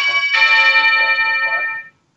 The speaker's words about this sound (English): That was the bell, but not our ending bell. That's the bell saying we're running short on time